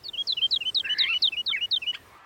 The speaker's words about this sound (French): Depuis la naissance des civilisations, de l'Asie à l'Occident, chez les musulmans comme chez les chrétiens ou les bouddhistes, aucun son de la nature ne fascine autant l'homme que le chant des oiseaux.